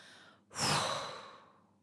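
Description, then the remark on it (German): A single long, forceful exhale, demonstrating a breathing exercise, breathy, starting with a strong rush of air and slowly trailing off as the lungs empty, with a softer intake of breath just before it. “Wir atmen, wir machen einmal alles raus.”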